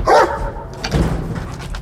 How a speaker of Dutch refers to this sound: een Mechelse herder, zoals je ze misschien ook van de politie kent, maar dan nog een tandje enger.